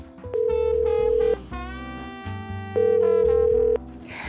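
A phone's ringback tone sounds twice while a call is being placed, each a steady one-second beep separated by a short pause, layered over background music with no one speaking.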